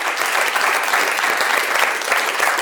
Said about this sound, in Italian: Quindi grazie, faccio una, un applauso io